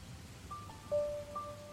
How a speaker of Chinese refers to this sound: 窗外，雨一直在下。宋小沫躺在柔软的沙发上，闭上了眼睛，聆听着外面的雨声。